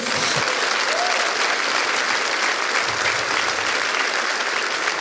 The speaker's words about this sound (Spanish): Denle fuerte el aplauso a Jesús.